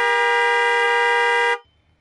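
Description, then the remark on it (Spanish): A single long, loud car horn blast from a driver on an avenue in the early morning, holding a steady, buzzy tone for about a second and a half, then cutting off abruptly, leaving faint low rumbling. “Y le pita el claxon y sale despedido dejando detrás a Dani”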